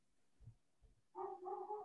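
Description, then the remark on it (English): A dog barks loudly and excitedly as a FedEx delivery arrives, its voice stretching into a sustained, drawn-out run after a couple of soft thumps, with no talking. “One of the pod oh, dogs themselves. FedEx is here. He's going nuts.”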